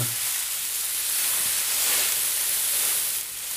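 A steady, airy rushing hiss imitates wind blowing through trees, swelling gently in the middle and easing off near the end. It is continuous, with no talking.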